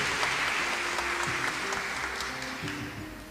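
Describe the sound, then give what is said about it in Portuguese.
A crowd at a Catholic celebration applauds the people from Manaus, clapping steadily for a few seconds: a dense, even patter of many hands with a faint murmur of voices mixed in beneath. “Nossa, mãe de Deus, gente, cadê o aplauso pessoal de Manaus aqui?”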